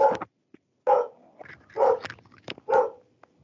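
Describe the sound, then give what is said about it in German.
A dog barks four times in a steady, evenly spaced rhythm, each bark loud with short gaps of quiet between them; no one speaks. “der Hund hat den Film auch nicht gern, der wehrt sich irgendwie ja.”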